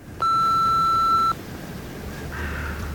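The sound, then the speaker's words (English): A single loud, steady electronic beep of an old answering machine on a house phone, lasting about a second, then cutting off into faint hiss and low background rumble. “He calls my he calls my house phone, and I have an old answering machine there.”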